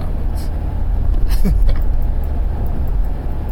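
Steady, loud low rumble of a car driving in the middle of the night, heard from inside the cabin, with constant road noise throughout and a brief vocal sound partway through.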